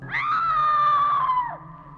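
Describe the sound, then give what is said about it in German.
A single loud, sustained scream inside a lighthouse on the North Sea in foggy late November rises sharply, holds a steady high pitch for over a second, then breaks off abruptly, leaving a faint low hum behind. “Ein Schrei, ein Knacken, eine nackte Hand greift nach dem Besucher.”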